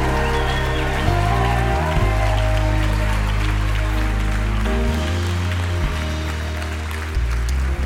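An audience at Calvary claps steadily in a dense, continuous wash of hand claps during a revival service as people come forward to the front. Loud sustained music with deep chords shifts every second or two. No one speaks.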